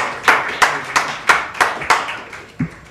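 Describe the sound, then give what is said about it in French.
An audience in a lecture hall applauds to welcome a guest, in a steady rhythm with about six crisp, distinct hand claps spaced evenly, then a softer thump near the end. No voices are heard. “Je crois que ça mérite un applaudissement.”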